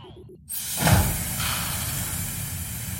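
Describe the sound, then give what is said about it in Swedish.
A simulated spacewalk soundscape, a spatial audio soundscape made by the company Spatial: after a brief quiet moment, a steady, airy hiss with a low rumble cuts in and holds, swelling briefly just after it begins. No one speaks. “Jag vet inte, vi eh, ska testa till exempel hur det låter när man är, går i rymden.”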